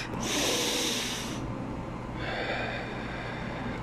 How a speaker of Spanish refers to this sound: Toma una respiración profunda más.